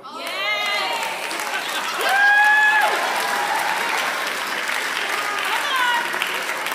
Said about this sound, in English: Because what I recognize, and this is where the clap comes in, an empty tomb means, watch this wait for it, wait for it.